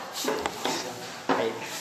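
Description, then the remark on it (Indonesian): A door is shut and locked, with a few sharp clicks and a solid clunk near the end, while a voice murmurs faintly in the background. “Tolong kunci pintu mata.”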